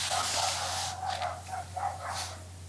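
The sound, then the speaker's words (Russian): A dog barks several times in quick, uneven succession indoors, the barks somewhat muffled and moderately quiet over a steady low electrical hum, with no one speaking. “Собака тоже в подкасте.”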